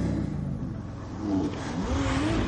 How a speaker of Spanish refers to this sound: El otro matón se sube al Porsche de Navas. Los tres coches se marchan.